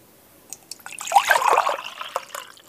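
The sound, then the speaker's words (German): Liquid gurgles and splashes as a drink is poured into a cup, a burst of bubbly glugging that swells for about a second and a half, with a few drips before and after. No one speaks. “Ah, er hat seinen norwegischen Freund Lasse Gluckern mitgebracht.”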